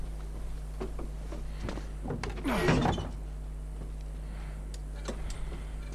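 A door being closed: a short scraping, sliding rush lasting under a second, followed by a few light clicks and taps, all over a steady low electrical hum. No one speaks.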